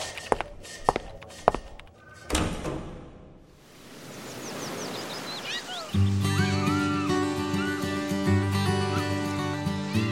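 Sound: door being pushed open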